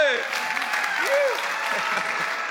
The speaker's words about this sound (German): Lass uns mit einem riesen Applaus begrüßen Pastor Russell Evans aus Melbourne. Planet Shaker.